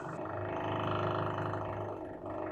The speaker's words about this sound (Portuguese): O que, que é isso? É o de cima. Deve estar tá furando alguma coisa. Fique agora então com a furadeira do vizinho. Isso. Tá parecendo uns peidão.